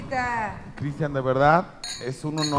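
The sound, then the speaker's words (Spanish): Glasses clink together in a toast, a bright ringing chime near the end, heard under a person speaking warmly throughout. “Ay, no, esto está bueno. Salud, salud, salud.”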